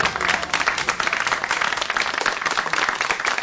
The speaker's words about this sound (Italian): Ero seduto davanti a una scrivania, dietro di me c'è c'era l'acquario cosiddetto dove stava la regia e davanti di me c'era una clac di più o meno studentelli che facevano sega a scuola e venivano là per beccare la mille e fare finta di applaudire.